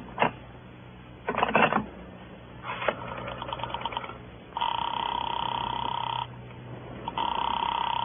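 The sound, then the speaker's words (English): Telephone line sounds as a call is put through to Sing Sing prison, with no voices: a few sharp clicks, a quick burst of dial-like pulses, then long steady ringing tones on the line, clear. “I gotta put through a call to Sing Sing.”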